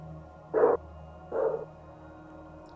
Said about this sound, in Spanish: Ya empezamos con los, eh, perros, siempre hablando de que te pasen cosas raras.